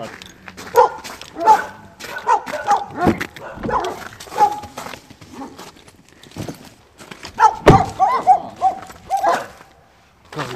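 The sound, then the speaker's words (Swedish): Several rescue dogs that needed new homes bark in irregular, overlapping bursts, with sharp yips mixed in and some clattering in the background, loud throughout. “Är det där era riktigt egna från början eller är det hittehundar det där?”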